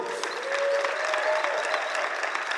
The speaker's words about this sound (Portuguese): Eu queria que vocês recebessem aqui com uma salva de palmas nossos convidados hoje,